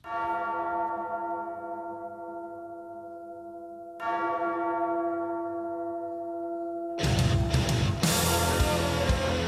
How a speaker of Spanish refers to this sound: Vamos a hablar de las campanadas.